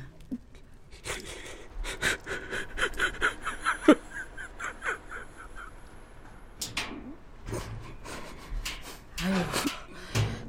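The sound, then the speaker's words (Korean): A man sobs and wails outdoors in broken, gasping bursts, his breath catching between cries, loud, with no words spoken. “남사스럽게 밖에서 왜 그래요 들어와서 울어요”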